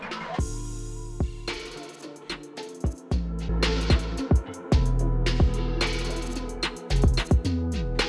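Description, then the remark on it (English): A beat-driven music track with punchy drums and deep bass alternates between an unmastered, thinner, duller version and a professionally mastered, louder, fuller, brighter-sounding version of the same passage, with no talking. “What you're hearing right now is an unmastered track compared to a, a professional master track.”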